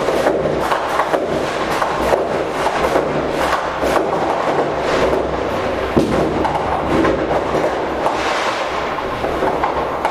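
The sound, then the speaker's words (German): Dense, continuous crackling and banging of fireworks and firecrackers at New Year 2023, many overlapping bursts forming a steady rumbling din, with no talking. “Und es wird geknallt jetzt hier.”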